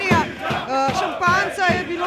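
A large crowd celebrating a victory loudly chants "Slovenia" in unison, the voices rising and falling in a steady repeated rhythm, with several strong pulses across the two seconds.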